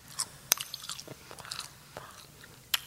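ASMR eating: crunchy chewing with sharp, irregular bites and snaps, a couple of louder crackling crunches standing out over softer mouth sounds, no talking.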